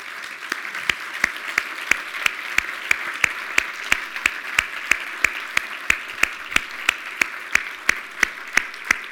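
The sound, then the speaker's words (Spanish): An audience applauds steadily for about nine seconds, a dense wash of clapping with sharp claps landing in an even, rhythmic beat on top. No one speaks. The applause is for the Lord and for the visitors, after a letter of thanks from the Baptist Convention is read. “Entonces, vamos a darle un aplauso al Señor y a ustedes.”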